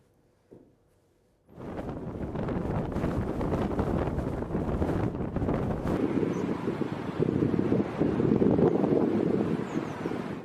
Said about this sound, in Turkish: Efendim dünyada havalar fırtınalı. Bizde de yaşanıyor. Bizde de zorluklar çıkıyor fakat şimdiki görüntüler İngiltere'den. O kadar kuvvetli rüzgar uçaklar inmeye çalışıyor kimisi de inemiyor.